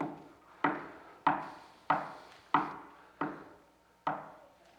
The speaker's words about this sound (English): Someday the knocking will stop.